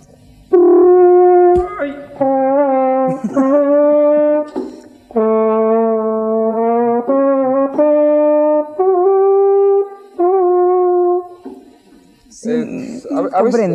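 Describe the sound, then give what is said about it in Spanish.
A homemade small horn built from a water heater, called the 1977 California, plays a loud run of sustained brassy notes, each held a second or two with brief breaks, before a short burst of noise at the end. “Este, esto está hecho, como verás, a partir de un calefón.”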